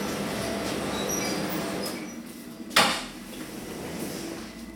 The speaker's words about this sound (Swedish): Men eh, i övrigt så är det mekaniskt. Ja. ja, man kan se kedjor som rasslar här. Det det, Och hörs gör de också.